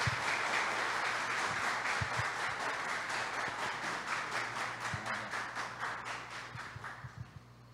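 An audience at a religious temple gathering applauds to welcome a spiritual mother being introduced, in a steady, dense wash of clapping that fills the whole stretch, with a few low thumps mixed in, before it slowly thins and fades toward the end.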